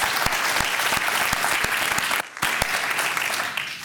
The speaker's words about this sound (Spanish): Debe ese fuerte aplauso al Rey de Reyes. to the King of Kings.